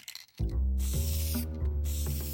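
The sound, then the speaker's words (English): A can of spray paint hisses in two steady bursts separated by a brief pause, loud, over a sustained low tonal hum, as it is used to paint in the street. “Carrying that can of spray paint into the street felt dangerous, but also freeing and empowering.”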